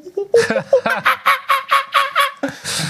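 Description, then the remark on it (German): Someone imitates a monkey with a rapid run of about eight loud, hoarse hoots in a steady rhythm, followed by a breathy rush of noise at the end. “Oh, Moment, hier ist ein Affe.”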